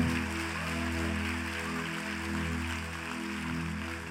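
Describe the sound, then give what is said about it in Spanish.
An audience applauds the Lord in a dense, steady wash of clapping that holds at an even loudness throughout, with a low sustained drone running underneath. “Ahora dar el mejor aplauso que le hayas dado al Señor en mucho tiempo.”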